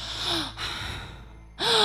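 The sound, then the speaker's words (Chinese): A voice imitates a choking, strangled gasp: harsh, breathy rasps pulled in with strain, two loud bursts separated by a quieter wheezing stretch, with no words spoken. “我就听见那个声音特别特别近，就就后来是在我耳边的一个声音，他那个喘气的感觉就是像谁掐住了他的脖子，他在呼救一样，就是。”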